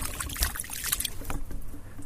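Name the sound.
water trickling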